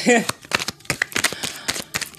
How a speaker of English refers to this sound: yeah, I just got done with that. That whole shuffle. That was a whole shuffle, y'all.